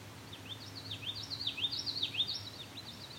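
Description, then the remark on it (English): A songbird mimics a common yellowthroat's song, a quick, rhythmic series of repeated high chirping phrases, over a steady low background hum. “Common yellowthroat again. Very strong common yellowthroat songs.”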